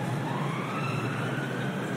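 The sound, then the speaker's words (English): A wailing emergency siren sounds steadily in a London street near St Pancras, its pitch gliding slowly over a dense wash of traffic noise, fairly loud and continuous throughout, with no one speaking. “quite a lot of sirens today, and I can see the Great Northern Hotel to the left, which feels just out of another era, and the St Pancras Hotel”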